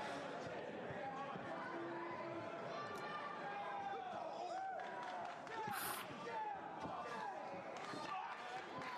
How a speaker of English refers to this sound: It's more like how like small the crowd is. Yeah. It's weird that there's no commentary. I know. You just hear people in the crowd. Yeah. Atmosphere is dead, isn't it? Considering it's an ECW show, they're just dead.